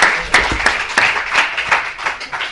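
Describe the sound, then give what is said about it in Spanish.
An audience applauds steadily for a pupil who has just asked a question, a dense wash of many hands clapping with sharper individual claps popping out irregularly, fairly loud and sustained without any talking. “Pues un fuerte aplauso para el compañero que ha hecho una pregunta fantástica.”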